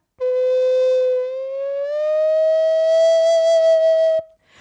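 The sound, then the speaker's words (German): A single sung note held steadily, starting a third below the target note E, then sliding smoothly up to the E and sustained there for a few seconds, loud with no other sounds. “Also man soll einen Ton zum Beispiel eine Terz tiefer beginnen. Also wenn ich jetzt ein E singen sollte, und ich beginne Terz tiefer.”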